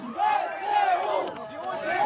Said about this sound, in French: Une militaire ukrainienne portée par la foule sur la principale place de Kherson. Ces civils crient leurs remerciements aux soldats. Ils viennent de rentrer dans la ville. Vive notre armée, scande la foule.